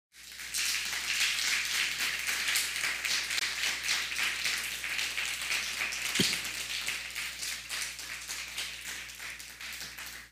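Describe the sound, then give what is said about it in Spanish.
An audience at a religious service breaks into sustained applause for God (the Eternal), a dense, steady wash of many hands clapping at once that holds its level for about ten seconds with no voices over it. “¿Por qué no le damos un fuerte aplauso al Eterno por eso?”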